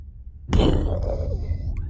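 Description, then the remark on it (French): After a brief silence, a voice imitates a gunshot with one sudden, loud, breathy burst from the mouth, trailing into a rough, hissing exhale that fades slowly. “Là, tu fais, les bruits de coups de feu avec ta bouche, mais au montage, tu vas rajouter les bruits.”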